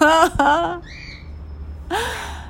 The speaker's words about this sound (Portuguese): Mas voltando aqui, a gratidão, a passarinhada de som de fundo tá delícia.